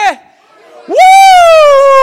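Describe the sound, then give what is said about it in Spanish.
A loud, excited shout of joy: a single high voice sweeps upward and holds a long, bright whoop that slowly sinks in pitch, after a brief short vocal sound and a moment of quiet. “Tú vas a dar un grito de”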